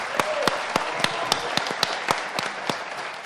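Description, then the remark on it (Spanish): An audience applauds warmly to welcome the directors of Radio UNAM and TV UNAM on the show Primer Movimiento. It is a dense wash of many hands clapping at once, with sharper individual claps popping out in a quick, uneven rhythm throughout. “Estamos aquí en primer movimiento y seguimos con los directores de radio y de TV UNAM, a quienes vamos a recibir con un enorme aplauso.”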